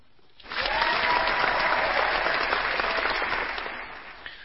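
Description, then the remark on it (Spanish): An applause sound effect starts abruptly, a dense steady crackle of many clapping hands sustained for about four seconds before tapering off, with no one speaking. “Si queréis dar un aplauso o algo, no sé si alguno tiene a mano el aplauso.”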